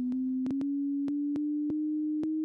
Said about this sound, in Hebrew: אגב, אני אגיד שמה שאתם שומעים כרגע זה נטו גל סינוס שהוא אפילו לא קיים בטבע, זה ממש אה, אה, גל קול מלאכותי.